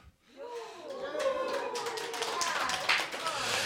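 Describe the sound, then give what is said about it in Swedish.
An audience in the kitchen and dining room of the Fountain House premises at Götgatsbacken 38, during the radio show Radio Total Normal, breaks into applause, a dense patter of many hands clapping that swells and holds steady, with voices calling out over it at the start. “Ni hör publiken här på Götgatsbacken 38 där vi som vanligt sänder ifrån Fountain House-lokaler.”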